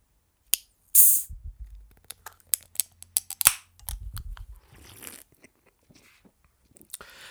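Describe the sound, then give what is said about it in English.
Loud crunching as someone bites and chews dry toast, a series of sharp brittle cracks and crackles in an irregular rhythm, with no talking. “That is also the sound of toast.”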